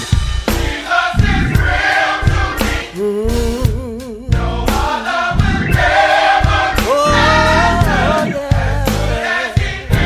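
A church audience praising God sings and cries out together with loud, sustained voices, some wavering, over steady rhythmic hand clapping that fills the space throughout.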